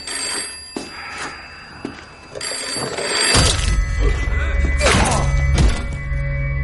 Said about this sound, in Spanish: El hombre se levanta, coge el teléfono que hay sobre la mesa y le propina un fuerte golpe al joven.